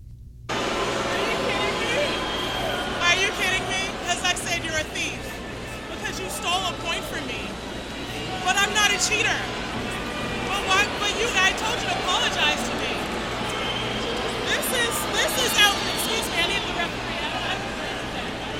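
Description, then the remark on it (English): A large crowd at a tennis stadium murmurs continuously during the Serena versus Osaka match, many overlapping voices blending into a dense, steady hubbub with no single speaker standing out, over a low rumbling hum. “It was hard to hear over the crowd, but Carlos Ramos said game penalty.”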